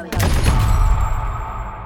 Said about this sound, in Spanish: Lo bajaron a los golpes, lo obligaron a arrodillarse y mientras tenía la cabeza gacha y estaba esposado, le dieron dos disparos en la cabeza.